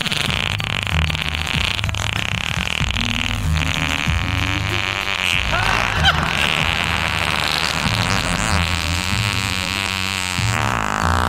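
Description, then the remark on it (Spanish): A continuous run of loud, buzzy, sputtering fart sounds fills the whole stretch, raspy with a rough, flapping texture and no pauses or talking. “¿Pero por qué te echas pedos?”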